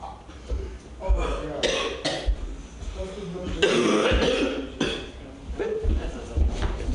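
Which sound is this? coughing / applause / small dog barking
coughing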